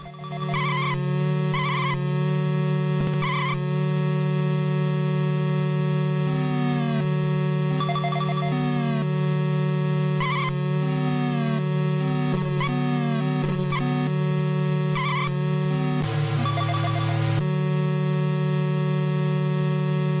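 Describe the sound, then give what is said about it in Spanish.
Video game truck race audio from a race with no crashes: layered, buzzy engine drones hold steady while their pitch repeatedly slides up and down in gear-shift glides, with occasional bursts of clatter and no talking. “Bien, vamos a escuchar esta carrera donde no se va a chocar nada, donde no, no, no va a haber nada.”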